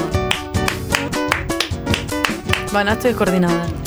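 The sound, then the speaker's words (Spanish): A wooden board bangs against a cardboard pizza box in a quick, irregular series of hollow, knocking taps, fairly loud, with voices running underneath throughout. “¿Una tabla de madera arriba de una caja de pizza y la están golpeando?”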